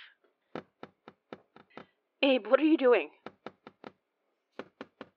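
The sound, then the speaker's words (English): Sharp taps on glass ring out in a steady series, pause while someone briefly speaks, then resume in another quick run of knocks followed by a few more. “I'm pretty sure we aren't supposed to be tapping the glass, though.”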